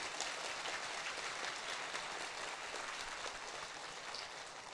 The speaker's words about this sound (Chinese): 各位，这样要不要给我们一个普安吉，一个最热烈、最热情的掌声？